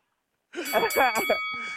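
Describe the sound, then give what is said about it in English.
A bell rings out with a sustained, bright metallic tone that lingers, rung to end a caller's call, while someone talks over it. “hey, champ, that's the bell, champ.”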